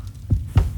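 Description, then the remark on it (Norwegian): Two deep, muffled heartbeat thumps, evenly spaced about a quarter second apart, over a low steady hum with no voices. “Plutselig våkner hun av at hun hører hjerteslag Først tror hun det er sine egne,”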